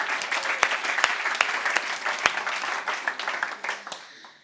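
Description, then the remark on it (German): An audience at a church worship service breaks into steady applause for two performers, a dense wash of many hands clapping with a few sharper individual claps standing out, holding at a fairly even level before tapering off at the end. “Und hey, auch einen kleinen süßen Applaus für unsere zwei fantastischen.”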